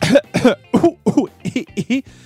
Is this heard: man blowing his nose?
yes